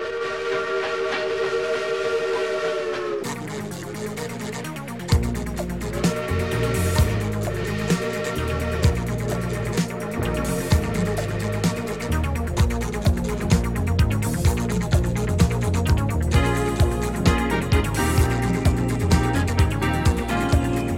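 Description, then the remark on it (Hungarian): Railway station hall ambience in the LAC hall of Keleti railway station in Budapest, Hungary: a sustained steam-like whistle for a few seconds gives way to a dense, echoing wash of clattering, rhythmic mechanical noise and hiss. No one speaks. “Kedves hallgatóink, most kapcsoljuk a budapesti keleti pályaudvar LAC termét.”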